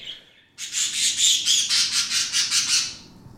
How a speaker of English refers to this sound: the liveliest part of this nature setup that I have is the two parakeets